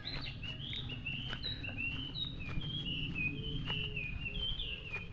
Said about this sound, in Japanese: 鳥が鳴いてますね。